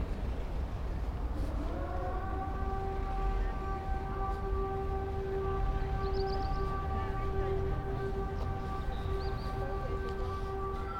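A civil defense siren wails steadily in its monthly test at noon on a Wednesday near the Panthéon, its sustained rising-then-level tone holding for several seconds over a busy outdoor background of traffic and street noise.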